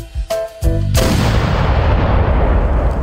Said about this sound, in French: À leur arrivée à Québec, ils furent salués par le canon du Fort Saint-Louis et accueillis avec égard.